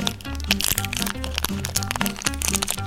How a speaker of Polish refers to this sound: Gdybym miał stopniować, co najbardziej podnosi ciśnienie, to na miejscu trzecim ustawiłbym szelest papierków na równi ze smrodem jakiegoś domowego żarcia.